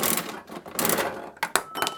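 A capsule toy gacha machine being turned: a dense run of ratcheting plastic clicks and rattles, then a couple of sharp clacks near the end as the mechanism finishes its turn.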